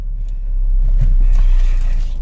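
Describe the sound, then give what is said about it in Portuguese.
A car engine's deep, steady rumble swells in loudness over about a second, then holds at a strong roar as the vehicle accelerates from 0 to 100 in a timed test. No one speaks. “A aceleração de 0 a 100 Vamos fazer uma agora.”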